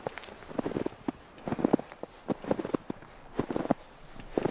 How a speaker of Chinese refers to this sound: 那个松林、树林和龟河的中间的位置，雪非常的大。你听，这就是我的脚踩在雪地上。片雪没有人踩，这是我的脚印。